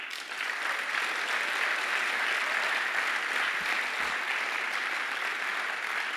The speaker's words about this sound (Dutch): Laten we respons geven daaraan. Kom, laten we de Heer even een applaus geven daarvoor.